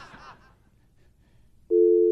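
A steady, loud electronic telephone tone starts abruptly near the end after a brief burst of laughter-like voice and quiet line noise, holding at a constant mid pitch like a busy signal after a hang-up.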